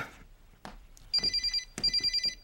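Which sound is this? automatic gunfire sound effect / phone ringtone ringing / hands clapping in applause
phone ringtone ringing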